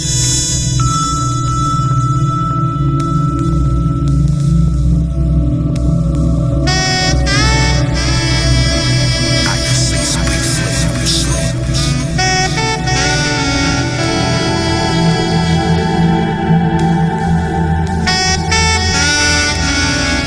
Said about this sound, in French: Ça sonne new-yorkais de fuck. Même pas. Hein, du rap français.